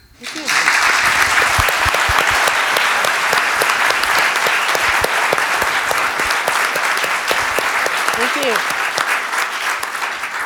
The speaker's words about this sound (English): Let's give our moderator and our panelists another round of applause for being with us tonight,